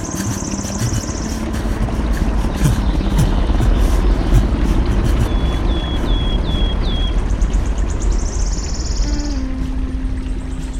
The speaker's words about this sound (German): Das Ding, welches nahe über ihm zu schweben schien, wurde zu etwas Großem, Mechanischen, das weit entfernt war. Es dauerte eine geraume Zeit, bis er die kreisenden Rotorenblätter sah. Ein Helikopter. Was suchte ein Hubschrauber in seinen Träumen?